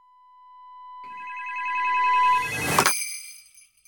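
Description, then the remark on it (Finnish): A telephone line rings after a number is dialed to the Santa Claus workshop phone exchange in Finland: a steady electronic tone swells in volume, layered ringing tones join in, then a short noisy burst cuts through. No one speaks. “Nyt näpytään. Joka näppytään numero.”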